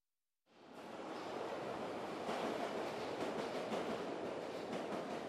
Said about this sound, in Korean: 우리는 올더스 게이트까지 지하철을 타고 갔다.